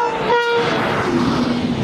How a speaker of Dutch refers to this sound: De Thalys, hè? die supersnelle trein naar Parijs.